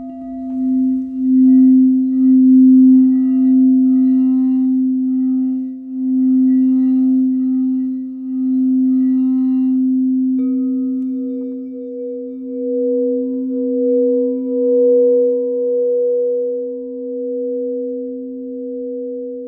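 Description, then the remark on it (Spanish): A singing bowl hums in a long, steady ring with a gentle wavering pulse, joined halfway through by a higher overtone. It sounds fairly loud, and no one speaks. “Permite que el sonido del cuenco vaya disolviendo como el agua disuelve una roca que se ha hecho de tierra y que es pesada.”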